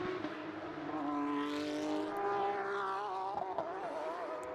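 Porsche race cars roar loudly and continuously in a 2022 Porsche Carrera Cup North America race at Road Atlanta, their high-revving pitch rising and dropping as the cars accelerate and sweep past on the track, with no voices.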